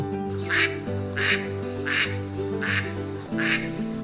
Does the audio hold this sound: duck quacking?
yes